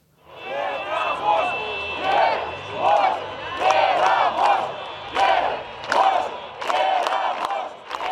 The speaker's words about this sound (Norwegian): Vi tror vi kan og vi vil vinne, ropte demonstranter i Hviterusslands hovedstad Minsk i fjor høst. De som protesterte, krevde at president Aleksandr Lukasjenko måtte gå av.